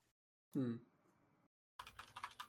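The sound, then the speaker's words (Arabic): A short burst of computer keyboard keys being pressed, fairly loud, with quick uneven clicks after a brief low thump and a pause, while the keyboard, whose number six key was stuck, is checked. “طيب ايش الكيبورد حقي ايش صار الكيبورد”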